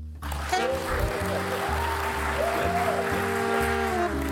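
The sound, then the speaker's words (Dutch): A large live audience of hundreds of people at Pakhuis de Zwijger in Amsterdam applauds loudly and steadily for about four seconds, a dense wash of clapping with a faint sustained tone running beneath it. “Misschien kunnen jullie even laten horen dat je er bent.”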